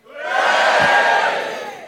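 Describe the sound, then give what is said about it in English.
A loud burst of audience cheering at the Leicester Square Theatre in London, from those who voted Remain, many voices yelling and whooping together in a broad, sustained roar that swells quickly and holds steady for a couple of seconds before easing slightly. “I'll give me a cheer if you voted Remain.”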